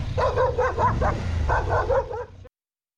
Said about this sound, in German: ist eigentlich nur ein ganz empörter Straßenhund, der mich ankläfft und bei dem ich erstmal nicht weiß, wie die so drauf sind hier in Kolumbien und ob er nicht doch nach mir schnappen würde.